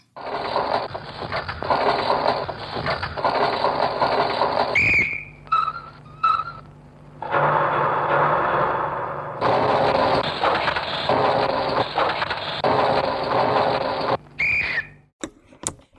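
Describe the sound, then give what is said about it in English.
A snippet of Schaeffer's railway study, a musique concrète piece built from tape-recorded train sounds: long stretches of dense, clattering rumble cut off abruptly, with sharp whistle bursts at the splices and brief gaps between sections. “So here's a snippet from Schaeffer's famous railway study.”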